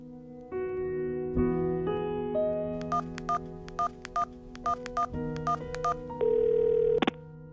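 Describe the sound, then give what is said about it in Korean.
A telephone receiver is picked up and a steady dial tone hums, then a quick run of about ten short beeping button tones is keyed in a brisk, uneven rhythm, ending in a brief louder tone. No one speaks. “삶과 죽음의 갈림길에 선 그는 마지막 신락 같은 희망이라도 잡고 싶은 마음에 수화기를 들었습니다.”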